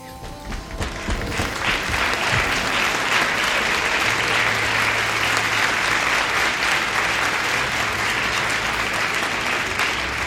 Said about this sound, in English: Right. Why are you clapping for th- for him? What could he have possibly said just now that was worthy of praise?